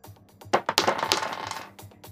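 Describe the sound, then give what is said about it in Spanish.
Dice clatter and tumble across a hard tabletop in an opposed strength roll during a game, a few sharp clicks followed by a rapid rattling burst that settles quickly, fairly loud with no voices. “Tiras tú y tiro yo.”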